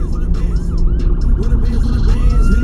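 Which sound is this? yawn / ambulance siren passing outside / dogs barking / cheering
ambulance siren passing outside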